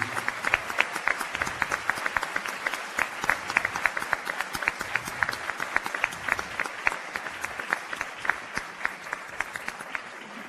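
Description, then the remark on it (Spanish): Sustained audience applause at a university faculty, a warm round for the initiator of the project, a dense steady patter of many hands clapping at once, fairly loud and even throughout with no voices standing out. “Un caluroso aplauso para el maestro”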